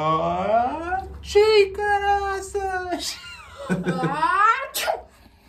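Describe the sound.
A voice acts out a loud sneeze the way their mother sneezes: drawn-out, wavering, whiny breaths build up over several seconds before sharp, explosive bursts near the end, forceful.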